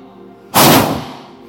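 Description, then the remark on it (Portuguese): A crowd fills their chests and, on a count of three, blows out air hard in unison, mimicking a strong gust of wind: one sudden, loud whoosh that holds for about half a second, then trails off. “Solta o ar, bem, enche o seu peito e vou contar até três. Você solta um vento bem forte.”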